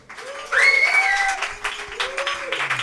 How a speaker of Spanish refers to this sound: Un aplauso.